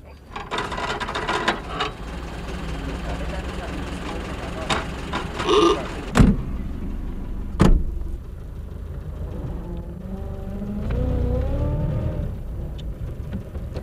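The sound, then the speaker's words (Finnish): A vintage 1926 Chrysler car with a Maxwell engine of probably eight horsepower runs steadily, a low chugging rumble with a few sharp mechanical clunks midway and a wavering, groaning tone near the end. “Tämä auto on Chrysler, malli 26. Tässä kulkee kahdeksan hevosvoimaa todennäköisesti.”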